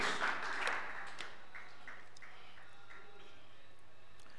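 A crowd claps in a brief burst that quickly thins to a few scattered claps. The applause is modest in volume, with no voices over it.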